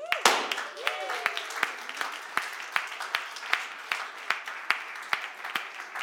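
A church audience applauds for their own generosity steadily for several seconds, a dense wash of many hands clapping with a few sharper, louder claps standing out in an irregular rhythm.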